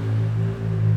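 Scooter engines drone with a steady buzzing hum that dips briefly midway and then swells again as they pass, with no voices.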